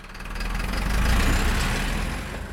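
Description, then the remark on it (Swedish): Road traffic with idling engines outside Anette's shop in a village: a steady, deep rumble, swelling slightly midway and easing toward the end, with no voices. “Ville trafikken utenfor Anettes butik, med den röda jackan i dörröppningen, gå från?”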